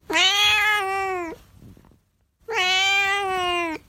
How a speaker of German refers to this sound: Und äh, wir haben als Infotier diese Woche Katzen. Und das ist die Katze von unserer Redakteurin Julika.